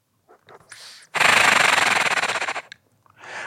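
A forceful exhalation against breathing resistance, a loud, rattling rush of air lasting about a second and a half, with softer breaths just before and after.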